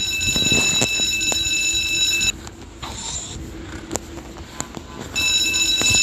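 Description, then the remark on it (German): A loud, shrill electronic alarm in a video game rings continuously for a couple of seconds, cuts out leaving a low rumbling background with a few clicks, then starts ringing again at the end. “Nur falscher Alarm.”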